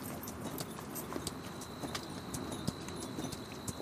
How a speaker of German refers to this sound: Ihr reitet ihnen mit euren Pferden langsam entgegen